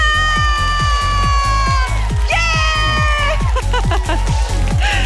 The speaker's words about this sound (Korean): 이 금요일 오후 저와 함께 뜨겁게 달려주실 분들은 박수!